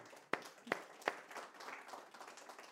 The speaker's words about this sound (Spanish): Dame un fuerte aplauso a nuestro Señor